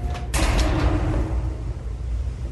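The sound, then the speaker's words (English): A hotel room door opens with a sharp mechanical clack near the start, then a low rumbling, creaky drag continues underneath for a couple of seconds. No one speaks. “hotel door, hotel room door, neighbor's hotel door.”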